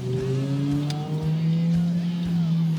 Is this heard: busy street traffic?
yes